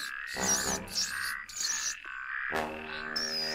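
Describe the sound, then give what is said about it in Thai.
A frog croaks by a stream at the edge of a forest in several rough, rhythmic bursts at a moderate level, with a steady bright chirring and a faint watery hiss continuing underneath. “หนูแก่ต้องการที่จะข้ามไปยังฝั่งตรงข้าม จึงเข้าไปขอความช่วยเหลือจากกบตัวน้อยที่ริมลำธารแล้วก็เอ่ยขอให้เจ้ากบพาข้ามลำธารด้วย”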